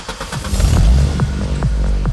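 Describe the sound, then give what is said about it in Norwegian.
A tuned car engine revs hard through a loud, rumbling exhaust, with sharp throttle blips and deep low-end growl, no talking; young adults cruising in tuned cars with noisy exhausts in Norwegian villages and towns. “I utallige norske bygder og tettsteder cruiser unge voksne rundt i trimma biler med dunkende bass og bråkete eksospotter.”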